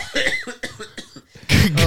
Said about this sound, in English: I have been, been coughing. coughing. all night. It well, it's been almost a month now. I feel like that I've just been coughing.